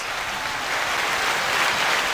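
Steady applause from a crowd, a dense, even wash of clapping at constant loudness throughout, with no voices or other sounds standing out.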